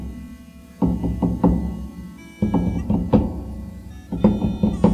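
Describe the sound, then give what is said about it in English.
A four-beat drum rhythm of dull, thumping hits, the Master's drumbeat from Doctor Who, repeated three times with short pauses between each group. Fairly loud, with no voices. “Remember when when the master's beating on the the drum and and the doctor keeps hearing oh yeah that drum beat that the master hears in his head.”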